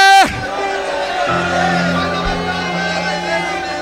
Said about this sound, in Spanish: Yo necesito oír el grito, el clamor, la súplica del pueblo.